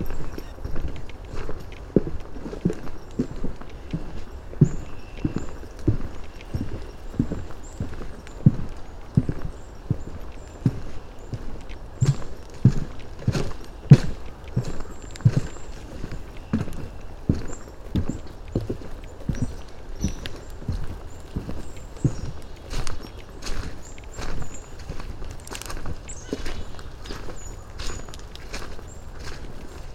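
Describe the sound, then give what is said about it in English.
Steady footsteps thud along a wooden walkway built by town volunteers over a fragile wetland on the Mud Pond Trail system in a forest, a regular, hollow-sounding clomp roughly twice a second that continues without pause and without any voices. “Parts of the Mud Pond Trail system cross fragile wetlands, so town volunteers have built a network of wooden walkways across them.”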